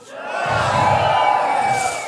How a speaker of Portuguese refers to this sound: Posso ouvir uns gritos?